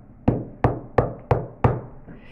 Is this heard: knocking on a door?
yes